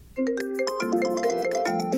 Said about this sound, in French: Les amants sortent leur téléphone et regardent qui les appelle.